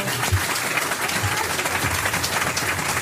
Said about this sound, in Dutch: Geef mij even klappen voor deze twee.